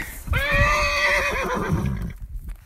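A mare that won't cross a creek lets out one loud whinny lasting about two seconds, its shrill quavering cry wavering and trailing off over a low, rumbling outdoor background.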